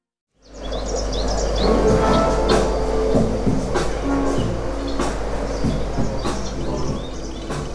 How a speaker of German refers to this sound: Vogelgezwitscher und Beats.